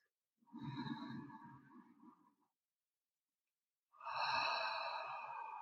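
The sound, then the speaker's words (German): Two long, deep breaths in and out, focusing on the chest and heart area, one drawn out for about two seconds, then a pause of silence before another strong, airy breath begins. Clearly audible, with no talking. “Und dann nehmen wir unseren Fokus mehr jetzt auf unseren Brustraum, auf unseren Herzbereich und atmen dort einige Male tief ein und aus.”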